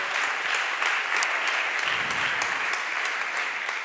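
An audience gives sustained applause to a man who has been asked to stand up: a dense wash of many hands clapping at steady loudness for several seconds, with a faint murmur of voices underneath.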